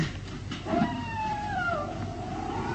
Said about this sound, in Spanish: Sí. Sí, un aullido. Un aullido igual que anoche.